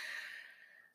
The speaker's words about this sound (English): That's my dog Billy over there. He's coughing.